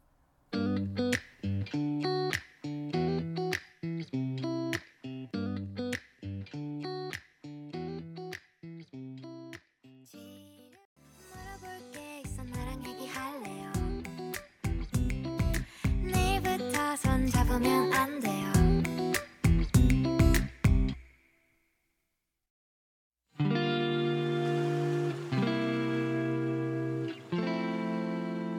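An upbeat pop song plays loud with a steady beat and bright melodic layers, then cuts to a brief silence before music resumes with sustained chords.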